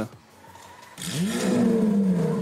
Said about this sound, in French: Eh ben, moi, j'aime bien les voitures qui font du bruit. Et surtout, je pense, perso, que ce n'est pas la fin de ce genre de véhicules qui font un beau bruit, une belle musique.